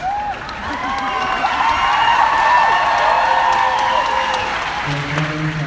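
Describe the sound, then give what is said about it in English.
An audience breaks into sustained applause, a dense, even wash of clapping mixed with cheering and scattered high whoops, holding steady for several seconds before a low voice briefly cuts through at the end. “if my three year old self had known that would get him a round of applause watching a TV show.”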